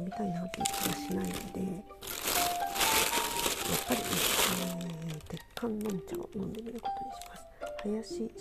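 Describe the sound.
A loud burst of crinkling and crackling packaging as a sealed packet of Tieguanyin tea from the Lin Mao Sen tea shop in Taiwan is torn open, lasting a few seconds, with a person talking before and after.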